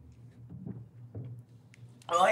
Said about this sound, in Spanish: ¿Qué pasó? ¿Se te fue por otro lado? Como le di el trago y me llegó directo a la parte de atrás de la garganta.